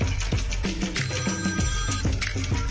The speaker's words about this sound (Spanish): vamos a hablar una vez que deje de sonar mi teléfono.